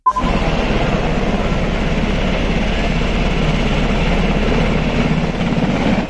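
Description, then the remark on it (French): A helicopter drones loudly overhead at the Polish border at Kuznica, its rotor chopping in a fast steady pulse beneath a constant engine roar that holds unchanged for several seconds, with no voices. “On entend ici le son d'un hélicoptère à la frontière polonaise à Kuznica, plusieurs centaines de migrants patientent dans l'espoir d'une ouverture.”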